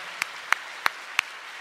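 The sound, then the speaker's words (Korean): Four sharp hand claps ring out at a slow, steady pace, about a third of a second apart, moderately loud against a quiet background with no voices, as applause at a live public broadcast for Hong Sora, who appeared in an introduction video. “먼 곳에서 소개 영상으로 등장해 주신 홍소라 석사님께 다시 한번 큰 박수 보내주시기 바랍니다.”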